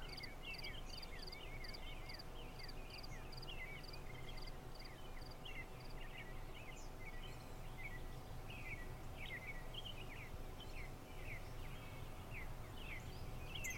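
Birds chirp and twitter steadily outdoors in a sunny meadow over a constant low hum of insects, with repeated high trilling calls in the first half and scattered song phrases throughout.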